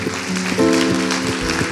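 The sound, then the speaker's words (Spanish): A church service audience claps in honor of the Lord, steadily, a dense crackling wash of applause at a fairly loud, even level, with a sustained tonal hum, like held music or voices, running underneath. “Que tal se honramos al Señor con este aplauso?”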